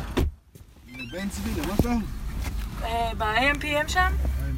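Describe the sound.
Inside a moving taxi riding into a villa district, a steady low rumble of engine and road noise runs throughout while people talk over it.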